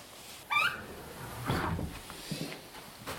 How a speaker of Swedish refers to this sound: Och just det här knarrande dörrarna.